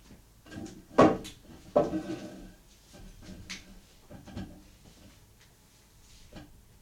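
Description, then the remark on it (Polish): Cassette deck pause and stop buttons clunk and click as pause is switched on and off, then stop, start and stop again: two sharp, louder mechanical clicks early on, then several softer clicks spaced out over the next few seconds, with no talking. “Teraz włączę pauzę. Wyłączyłem pauzę. Stop. Teraz był start z powrotem i stop już całkiem.”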